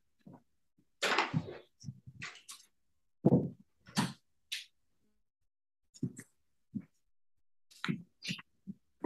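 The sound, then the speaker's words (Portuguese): A door is handled and closed to keep out noise, with a scattering of sharp knocks, clicks and thumps spread irregularly over several seconds amid otherwise quiet room tone. “Deixa eu só fechar a porta aqui para evitar ruído, só um pouquinho.”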